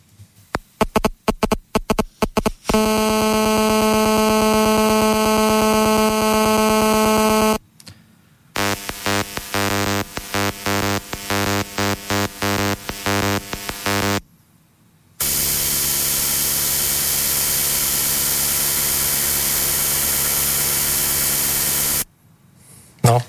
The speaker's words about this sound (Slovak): Čiže na sledujúcej ukážke si vypočujeme všetky tri typy tieto, týchto signálov. Budeme najprv počuť teda ten multiplex e, časový pre tú GSM e, telefón, potom to bude cez ten, pre ten DECT telefón a potom to bude pre tú tetrasieť